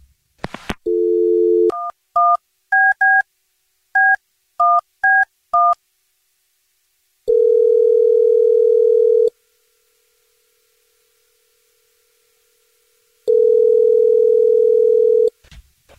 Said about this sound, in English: So, we're going to call her right now and see if we can figure out why she's not calling you back. Here we go. I'm going to dial the phone number. You ready?